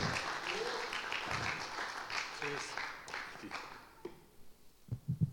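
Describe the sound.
A crowd applauds in a dense, steady wash of clapping for about three seconds, then it thins and fades out as a man begins speaking.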